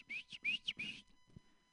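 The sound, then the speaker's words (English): A person whistles at a flock of birds, a short, chirpy phrase of four or five quick rising notes, clear, imitating birdsong, then it stops into quiet background. “I saw a flock of birds, so I tried whistling,”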